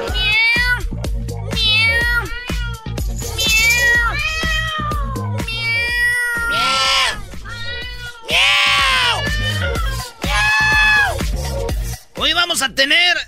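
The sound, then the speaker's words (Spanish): A cat meows angrily over and over, loud, with drawn-out, rising and falling yowls packed together for several seconds with only brief pauses. “De una gata enfurecida que no dejaba salir a alguien de su casa.”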